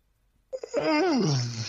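A single loud, close yawn: a couple of short breathy catches, then a long drawn-out vocal groan that rises slightly and slides downward in pitch. No talking.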